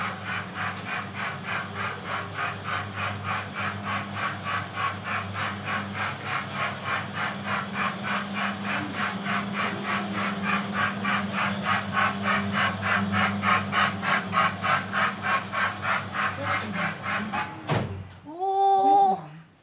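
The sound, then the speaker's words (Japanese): A miniature steam locomotive (SL train) carrying food chugs in a steady, rapid rhythm along a track outside the window of a guest room, growing slightly louder as it arrives, then cuts off abruptly into a short wavering tonal sound. “SL 列車が運んでくれる、はい、えどこに SL があるんですか、はい、で後ろ、はい、窓を見ていただいてえー、あ線路がある、はい、ここを SL が通って、はい、我々のお部屋に食材が運ばれてくる”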